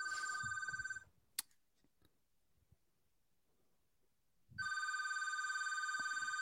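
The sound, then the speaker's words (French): A telephone rings in two electronic bursts separated by a few seconds of near silence, the trilling tone bright and steady, with no one speaking. “Yannick est parti répondre au téléphone.”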